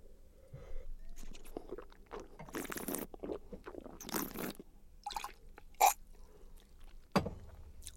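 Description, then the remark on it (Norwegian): Wet mouth sounds: a person slurps wine while sucking in air, producing several hissing, gurgling bursts with small smacks and clicks between them. No one speaks. “I tillegg til å skylle rundt, så slurper jeg litt. Jeg suger inn luft underveis.”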